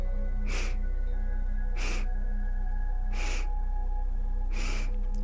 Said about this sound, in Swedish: Så fyra delar in i sniffningar och en lång suck ut.